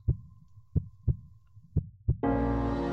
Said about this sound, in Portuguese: E no meio daquele silêncio, ele consegue realmente escutar o que o pulsar de seu coração tem a falar. E esse pulsar deve falar mais alto do que qualquer coachar.